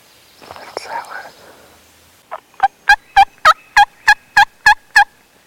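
After a couple of seconds of soft rustling noise, a wild turkey lets out a loud shock gobble: a rapid, rattling burst of about ten evenly spaced gobbling notes.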